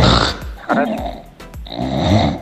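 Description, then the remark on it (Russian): An English bulldog snores loudly, with rough, rattling snorts and grunts in uneven bursts separated by brief pauses. “Это муж храпит. Муж, он же бульдог, он же мопс. Он же английский бульдог.”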